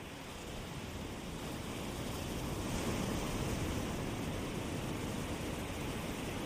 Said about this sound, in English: As the water crashes in, and the rush of water back to the sea.